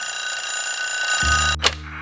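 A telephone rings with a steady, bright electronic trill for over a second. A lower tone joins it, then a sharp click cuts the ringing off, like a receiver being picked up.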